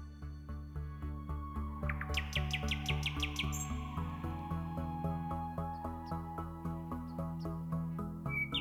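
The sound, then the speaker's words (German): Over a steady, pulsing musical backdrop, a nightingale sings a quick burst of bright rising whistles and trills, then falls back to a few faint chirps as the music carries on. “Ist Das eine echte Nachtigall.”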